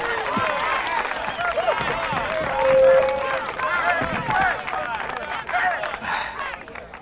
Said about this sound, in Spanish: Señores y señoras, Ron Kovic nació el 4 de julio de 1946. Un aplauso para Ron.